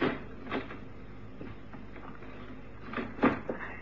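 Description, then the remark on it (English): A shop door opens with a bell tinkling: a few quiet clicks and rattles spread over several seconds, ending in a sharper clatter near the end. No one speaks. “Uh, the bell at the shop door tinkled, and a uh, well dressed but rather pale young man entered.”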